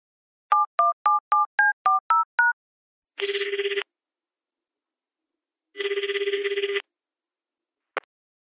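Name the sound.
telephone call connecting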